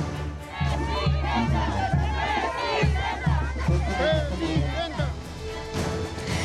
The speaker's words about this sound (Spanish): En la número 3960 nadie votó hasta que llegó la jefa de gobierno Claudia Sheinbaum y entre chinelos, fiesta y gritos de presidenta, la mandataria emitió su voto.